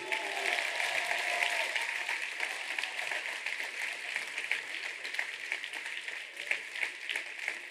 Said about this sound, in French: Merci à toutes et tous ce soir, une fois encore, de les applaudir. Merci beaucoup.